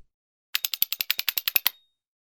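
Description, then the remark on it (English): A quick burst of about a dozen sharp hand claps in an even, rapid rhythm, crisp and fairly loud, lasting just over a second with silence around it. “But the black blot can clap.”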